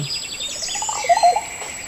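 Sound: bird singing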